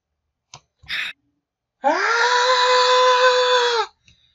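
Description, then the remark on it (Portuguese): A quick click and a sharp gasping inhale, then a loud, drawn-out cartoon cat scream, the scream of Tom, used as a soundboard sound effect, that holds steady for about two seconds before cutting off abruptly, with no talking. “Ei, tiver mesa de som, meu filho, o grito do Tom vai ser. Sound effect da gente.”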